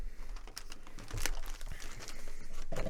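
Wrapping paper crinkles and rustles steadily as a gift is unwrapped, with irregular crackling bursts and tearing-like swells, no voices present.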